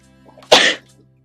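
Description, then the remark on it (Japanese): A single sharp sneeze bursts out, loud and breathy, lasting about a quarter second before quiet returns. “あ、くしゃみにミュートせ。”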